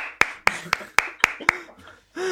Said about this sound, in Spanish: Sí, señor, me merezco un aplauso.